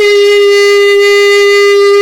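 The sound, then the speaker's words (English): A steady, high-pitched electronic tone rings without a break, loud and unwavering like a flatline beep, with no voices or other sounds around it. “It's like I'm flatlining.”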